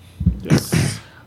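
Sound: sneeze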